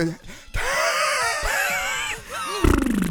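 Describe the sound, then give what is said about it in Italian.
A human voice imitates a dog's cry, with loud, wavering howls and yelps sliding up and down in pitch for a few seconds before ending in a rough, buzzy burst. “voglio ricordare il verso del cane che seguiva Semola nel fiume”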